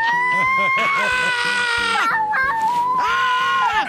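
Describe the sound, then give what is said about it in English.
A baby girl screams in loud, high-pitched, sustained bursts, two long shrieks separated by a brief break, with a lower adult voice vocalizing underneath. “she just loves to randomly scream now”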